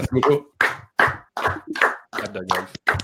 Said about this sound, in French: Clap de golf. les Smarks les ont jamais de clap de golf.